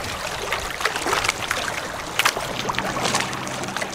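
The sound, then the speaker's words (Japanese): A small kayak-like boat without a motor skims across lake water at about walking speed, its hull pattering and splashing in a steady rhythm of light slaps and trickles, with no voices present. “今ちょっとスピードを出して水上散歩から水上ウォーキングぐらいのスピード出してみましたこの水面を走る音最高パタパタパタパタこれほんと気持ちいい”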